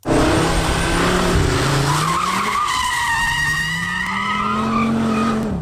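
Tires of a new Audi RS3 five-cylinder squeal loudly in a sustained, wavering screech as the car skids at the limit of grip during a test drive in Greece, with the engine roaring underneath throughout, continuous for several seconds.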